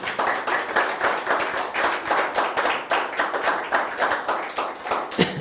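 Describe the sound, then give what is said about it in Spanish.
A crowd claps steadily for several seconds, a dense, continuous patter of many hands with rhythmic pulses and no voices, ending with one slightly sharper clap. “Así que un fuerte aplauso, por favor.”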